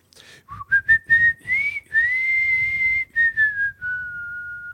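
A person whistles a song melody, a bright wavering tune with short notes and a long held tone, with a low breathy rumble of wind in the microphone underneath.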